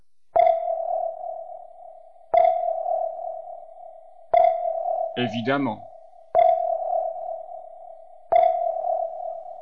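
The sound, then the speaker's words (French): Submarine sonar pings sound five times at an even two-second pace, each a sharp tonal ping ringing out into a fading tail. A brief spoken word cuts in near the middle. “ni de sous-marin.”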